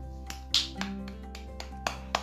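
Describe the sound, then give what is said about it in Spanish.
A child claps several times to demonstrate applause, in a loose, uneven rhythm, each clap a sharp, fairly soft smack over a steady low hum, with no voices. “gritaban los espectadores entusiasmados y aplaudían. ¿Cómo aplaudían”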